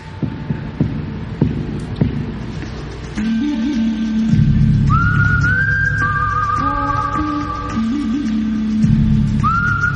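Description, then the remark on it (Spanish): A whistled theme from the 1966 film The Good, the Bad and the Ugly, sustained high whistled notes gliding over a loud orchestral backing, preceded by a few seconds of rhythmic, throbbing low beats. No one speaks. “Bueno, ahora vamos a hablar de mm, El bueno, el feo y el malo del 1966.”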